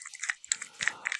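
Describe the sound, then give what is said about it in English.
A hand grip exerciser being squeezed, giving a few quick creaky, crunchy squeaks in uneven bursts over a second, with no one talking. “to make quiet grip mastery sounds that I later yeah,”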